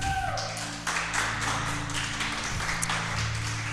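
A crowd applauding the Lord during a sermon, steadily for a few seconds, a dense crackle of many hands clapping over a sustained low keyboard or organ tone that holds underneath.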